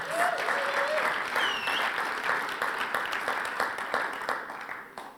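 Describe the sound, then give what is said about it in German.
Sustained applause from an audience of about 2,000 people for those who came forward to the cross, dense and steady, with a few faint cheers or whistles on top, gradually thinning toward the end. “Herzlichen Applaus für Sie.”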